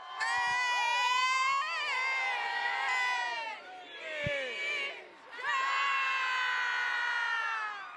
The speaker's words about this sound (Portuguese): Tá ouvindo aí, meu povo? Tá ouvindo aí? Esse é o Pode Rolar, aqui diretamente da Arena Planeta Boi. A galera tá insana aqui